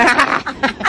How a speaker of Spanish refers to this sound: Ah, ah, aquí se oyen unos hipopótamos. Perdóname, pero aquí se oyen unos hipopótamos.